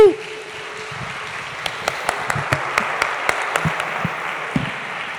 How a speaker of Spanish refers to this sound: Amén, un aplauso.